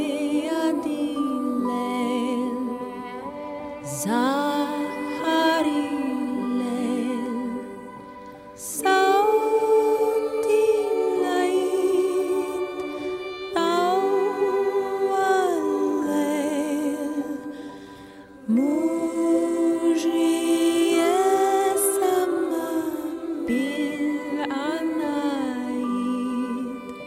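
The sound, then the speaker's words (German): "Silent Night" sung in Arabic by visiting nuns in Egypt in spring, in 40-degree heat: a slow, steady vocal melody of long held notes over soft sustained accompaniment, moving in gentle phrases with brief pauses between them. “Als Gastgeschenk wünschten sie sich von uns, dass wir Stille Nacht, Heilige Nacht singen, mitten im ägyptischen Frühjahr bei 40 Grad Hitze hören wir Stille Nacht, Heilige Nacht in der Weltsprache Arabisch.”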